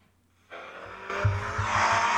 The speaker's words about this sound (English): that's him. That's him driving the Ferrari. yeah. is running great. It's just running great. It's so smooth into the curves.